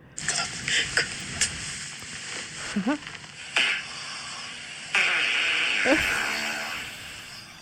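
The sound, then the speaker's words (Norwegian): Loud, drawn-out farts from a person in a bedroom, with a squeaky, rising pitch, one around the middle and another near the end, set against a steady hiss and scattered rustling thumps. “Først en liten god natt, altså en gigantisk fis”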